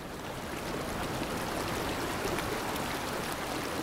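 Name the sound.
flowing river water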